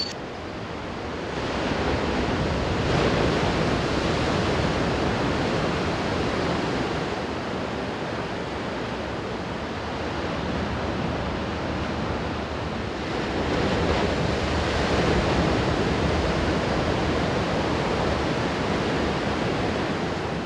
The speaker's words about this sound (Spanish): Lo que más me gusta es el sonido del mar en la noche porque ahí es cuando se escucha más fuerte y relaja.